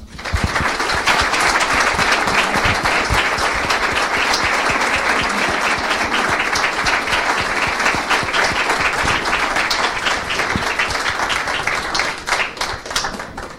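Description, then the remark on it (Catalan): A sustained round of audience applause for the founders of a roller hockey club at the start of an event, many hands clapping densely and steadily at a loud, even level for over ten seconds before thinning out slightly at the end. “així que amb ell, juntament amb la resta de fundadors del club, si us sembla bé per començar l'acte els dediquem un fort aplaudiment a tots ells.”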